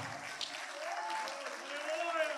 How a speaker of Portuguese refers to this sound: Pode aplaudir o Senhor.